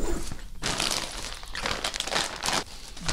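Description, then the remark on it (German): Dry stinging nettle straw stalks, with fibre on the outside, being handled: a steady, dense crackling and rustling with brittle snaps, loud and continuous, rising and falling in short bursts with no voices. “Das ist also das Nesselstroh, so ein Halm und wenn Sie da sehen, ist es außen die Faser.”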